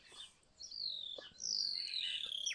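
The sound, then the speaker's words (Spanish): Birds chirp and call back and forth outdoors, thin high tweets and longer sweeping whistles overlapping at moderate volume, with no one speaking. “en el oír, en el oír los pájaros, ese diálogo”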